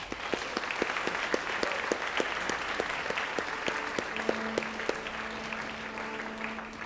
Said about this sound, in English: But, uh, so please another big hand for Roger Trefousse.